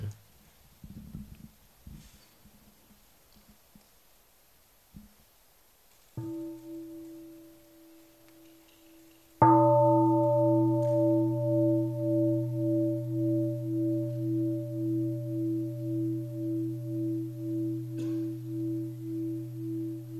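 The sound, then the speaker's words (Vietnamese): A large singing bowl bell, rung as a mindfulness bell inviting listeners to return to their breath, is first touched softly, then struck once fully, its deep resonant tone ringing on alone for many seconds with a slow, wavering pulse as it fades. “xin mời đại chúng mình nghe một tiếng chuông trở về với hơi thở”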